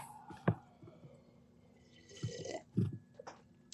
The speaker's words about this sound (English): Oh man, I'm gonna drink coffee now.